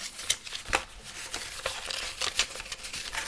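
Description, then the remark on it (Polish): Steady rustling and crinkling of paper documents, including a warranty card, being unpacked from a product's blister packaging and unfolded, with irregular crisp bursts and soft shuffling throughout; no one speaks. “Otrzymujemy na sam początek papiery. Papierów jest tutaj trochę.”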